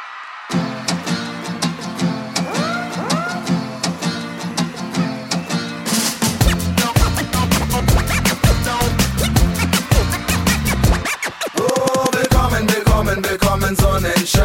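A German-language pop song plays loudly, with sung vocals over a steady drum beat; after a lighter opening, the arrangement fills out around six seconds in and keeps driving to the end.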